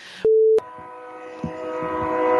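A short steady electronic beep cuts off, then a train sound effect swells in: a sustained, chord-like horn tone over low rumbling and clatter, growing steadily louder. No one speaks.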